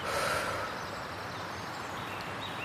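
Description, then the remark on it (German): A long, deep breath exhaled slowly through the mouth after breathing in through the nose, part of a relaxation breathing exercise, a steady rush of air that fades slightly toward the end, with no talking. “Lehn dich entspannt zurück, schließ die Augen oder such dir im Raum einen Punkt, wo du was Schönes siehst und dann atmen mal tief durch die Nase ein und durch den Mund wieder aus.”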